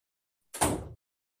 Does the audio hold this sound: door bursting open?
yes